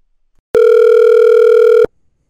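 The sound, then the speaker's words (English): A telephone dial tone as a phone call is being made: one loud, steady electronic hum that holds unchanged for just over a second, then cuts off abruptly. No voices, and no separate dialing beeps stand out. “So, with that being said, we're going to make a couple important calls this morning.”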